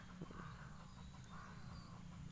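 Faint crow caws, two or three harsh calls spread across a couple of seconds over a steady low rumble of background noise, with no one speaking.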